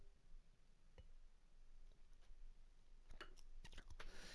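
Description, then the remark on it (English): Someone sips wine: a quiet stretch broken by a soft click, then a cluster of small wet slurps and mouth clicks near the end, with no talking. “I think I deserve a little sip, don't you? Let me have a little sip.”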